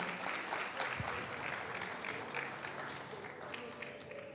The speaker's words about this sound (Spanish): Dele un aplauso al Señor, claro que sí, ¿por qué no?